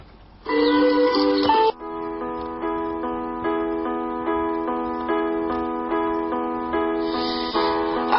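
A pop song plays loudly and steadily, with bright sustained chords and a gently pulsing beat; no voices come through, just the music on its own.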